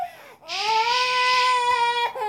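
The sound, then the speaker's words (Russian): A baby lets out one long, loud wail, a steady high-pitched cry with rich harmonics that holds for well over a second before breaking off, preceded by a brief whimper. “Ну, в общем, под этот рев, видимо, моя телега и завершится.”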